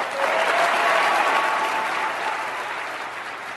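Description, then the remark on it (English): A large audience gives a prolonged ovation after a line in a speech, a dense wash of clapping that stays loud for several seconds and only slightly eases toward the end, with faint crowd voices mixed in. “There was such a prolonged ovation for that.”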